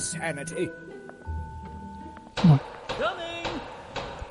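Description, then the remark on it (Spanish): A couple of heavy, hollow knocks on a wooden castle door ring out, followed by a faint thud, with soft background murmur and tones underneath. “pican a la puerta, a la puerta de este castillo.”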